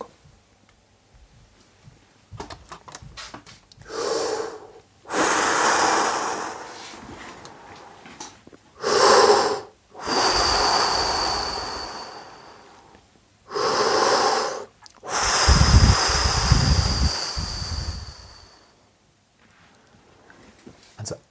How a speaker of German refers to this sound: Dein Bauch drückt aktiv den Luftstrom hinaus. Der Luftstrom ist stabil. Damit aktivieren wir den Motor für unser Spiel und das ist der Bauch. Das ist die aktive Bauch- oder Zwerchfellatmung.